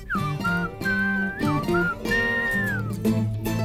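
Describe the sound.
A bright, clear whistled melody, an English air, moves through a series of held and sliding notes, carried over steady instrumental accompaniment, fairly loud throughout.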